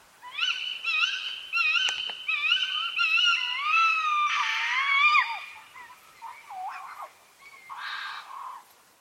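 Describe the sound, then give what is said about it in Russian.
A tawny owl gives a run of shrill, nasal, wheezy calls in quick repeated bursts, rising into a wavering screech and ending with a final harsh cry, with no talking. “в этом выпуске, я все равно хочу поставить голос серой неясности, потому что это часто встречающийся голос, и его легко запомнить.”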